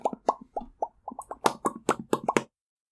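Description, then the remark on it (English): A voice imitates popcorn popping with a quick series of about a dozen crisp mouth pops, starting sparse and speeding up into a tight burst before stopping abruptly. “Or maybe his last brain cell finally popped a little. like popcorn.”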